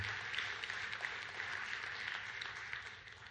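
A church crowd claps steadily together during a sermon, a dense wash of many hands applauding at once with no one speaking over it, filling the space with sustained, even applause.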